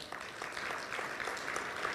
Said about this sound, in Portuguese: É, algumas pessoas precisaram mudar de lugar e a gente tem o pessoal lá do staff. Você pode dar uma salva de palmas, pessoal do staff?